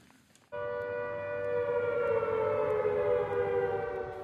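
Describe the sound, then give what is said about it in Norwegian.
A civil defense alarm siren in New Zealand, sounding at night after a strong aftershock to tell people to move to higher ground, starts abruptly and holds a steady, loud wailing tone with layered harmonics, slowly rising slightly in pitch over a low rumbling background. No one speaks. “I natt gikk alarmen på ny i New Zealand.”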